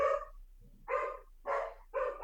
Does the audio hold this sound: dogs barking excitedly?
yes